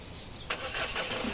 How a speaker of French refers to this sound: Sa voiture démarra direction la jungle, à l'endroit où nous nous étions précédemment rendus dans le cadre de shooting photo à mon arrivée sur l'île.